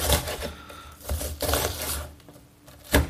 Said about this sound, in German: Ich schneide mein Zwiebelchen in kleine Würfelchen. Wie ihr das schön hören könnt.